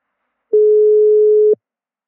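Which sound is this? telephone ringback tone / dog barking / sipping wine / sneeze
telephone ringback tone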